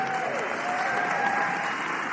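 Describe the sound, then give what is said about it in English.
Steady applause from an audience for the speaker's executive secretary, a dense wash of many hands clapping at a constant level for a couple of seconds, with a faint voice briefly audible underneath. “Give her a hand clap.”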